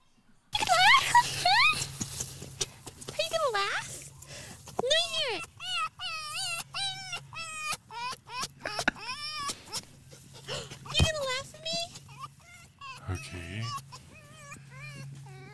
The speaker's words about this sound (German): Ist das nicht süß, Robert? Das sind Füchse.